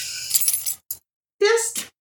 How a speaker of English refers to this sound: Jingle, jingle those keys